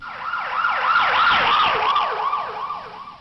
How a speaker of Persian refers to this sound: وقتی یه ماشین پلیس یا آمبولانس از کنار رد میشه چه صدایی میشنوی وقتی داره بهت نزدیک میشه یه جور صدا میشنوی وقتی هم که داره ازت دور میشه یه جور دیگه میشنویش